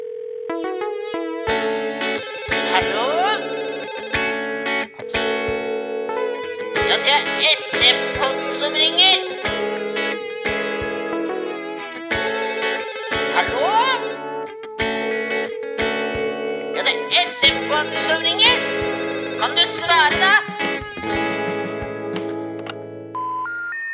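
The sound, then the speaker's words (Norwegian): A bright, processed Norwegian radio jingle with electronic tones and a sustained note underneath, punctuated by ringtone-like bursts that suggest a telephone ringing, playing loud and clear without any talking. “Og der, kjære lyttere, var Norges mest harry jingle.”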